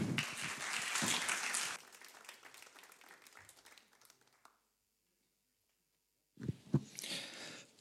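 A crowd bursts into applause, loud at first, then the clapping thins and fades away to silence; after a pause a short louder flurry of clapping returns.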